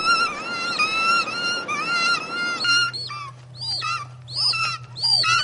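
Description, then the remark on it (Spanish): Harsh, shrieking bird calls from a cheap-looking film about mutated birds repeat in quick overlapping bursts, loud, over a dense noisy background that drops away midway, leaving squawks, whistling sweeps and a low steady hum. “Pero lo de los pájaros, es que lo de los pájaros es muy triste, es muy cutre.”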